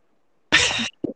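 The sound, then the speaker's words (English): Garbled audio of a caller's phone connection cutting out: after silence, a harsh, hissy burst of distorted sound starts abruptly, cuts out suddenly, then a short clipped fragment blips through before dropping away again. “you cut out there,”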